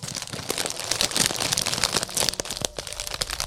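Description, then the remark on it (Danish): A plastic snack bag crinkles and crackles continuously for a few seconds, a dense run of sharp rustling bursts at steady moderate loudness, with no voices. “Jeg, jeg knæser lige lidt, så folk kan gætte med.”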